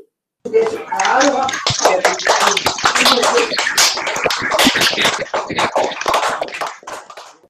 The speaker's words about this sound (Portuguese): Então, vamos agradecer, dando uma salva de palmas para o Aladim.